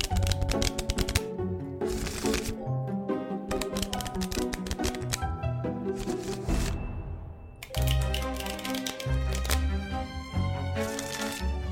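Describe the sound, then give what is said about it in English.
Playing cards being shuffled, a fast run of crisp riffling clicks that continues for most of the stretch with a short lull midway, over a soft steady musical drone. “Uh, the cards, and she just, oh, oh, they're telling me, and her hand is just.”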